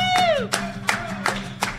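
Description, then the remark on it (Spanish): Steady rhythmic clapping, about five even claps in under two seconds, as people clap along to a birthday song while the candles are lit. A voice slides downward in pitch at the start, over a low continuous hum. “Palmas, chicos, mientras prendemos las velas.”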